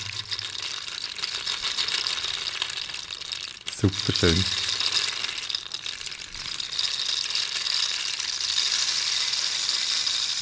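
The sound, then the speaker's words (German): A rain stick, called the rainmaker, being played, giving a steady, bright hiss of pattering pebbles that runs unbroken for the whole clip, with a brief spoken remark partway through. “Der Regenmacher. Ja, dann nehmen Es ist ja heute auch trocken bei uns, jetzt nehmen wir noch ein bisschen Regen.”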